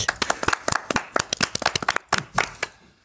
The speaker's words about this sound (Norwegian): Stående applaus